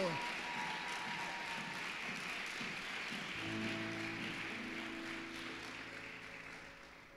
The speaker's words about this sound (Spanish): Vamos, un mejor aplauso.